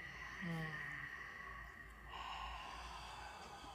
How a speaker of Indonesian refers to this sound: ambil nafas panjang dari hidung buang nafas dari mulutnya.